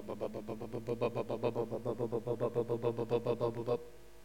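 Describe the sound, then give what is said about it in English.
A Westpac rescue helicopter, out on a Friday night searching for a lost bushwalker, passes overhead. Its rotor beats in a fast, steady thump-thump rhythm that fills the air, then drops away abruptly, leaving only faint background noise. “That was the, the Westpac rescue chopper coming to find a lost bushwalker.”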